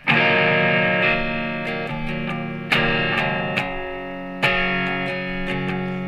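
An electric guitar plays a slow, plain chord progression, each strummed chord ringing out and sustaining before the next, with a warm, slightly driven tone and no voices.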